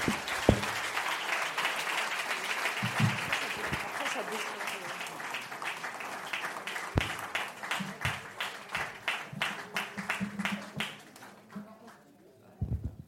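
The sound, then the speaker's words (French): An audience applauds steadily for about thirteen seconds, a dense wash of clapping with a few sharper individual claps standing out, thinning and tapering off toward the end. “On va applaudir maintenant”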